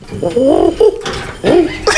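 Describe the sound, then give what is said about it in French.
A person imitates a pigeon's cooing with two throaty, warbling coos, each bending up and down in pitch, separated by a breathy pause. Fairly loud, with no other talk. “Non, ça c'est, ça c'est, ça c'est, comment dire, le pigeon.”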